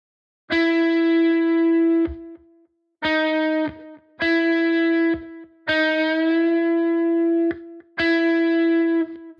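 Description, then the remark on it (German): Distorted electric guitar plays five sustained notes in a row, each ringing about a second or two with short gaps, a half-step bend pushing the pitch up to match the target note. No one speaks. “Zielton spielen, vom Startton einen halben Ton raufbänden und überprüfen.”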